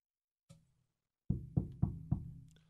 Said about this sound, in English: You get a knock on the door in the middle of the night. You open up that door and what's staring you in the face?